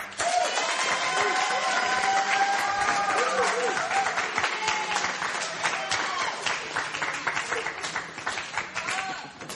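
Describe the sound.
An audience applauds steadily for several seconds, a dense wash of clapping with scattered cheers and voices mixed in, holding loud throughout before tapering slightly at the end.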